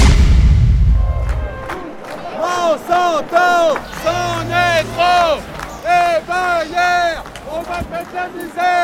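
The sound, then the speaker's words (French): A joyful protest crowd of several thousand people, many of them young, chants and shouts together outdoors in rising, rhythmic waves, many voices blending into an energetic, upbeat roar. “Bah, il y a plusieurs milliers de personnes et puis euh, une foule joyeuse, euh, beaucoup, beaucoup, beaucoup de jeunes, des milliers de citoyens qui sont là pour dire fuck, faut que ça s'arrête quoi, c'est vital.”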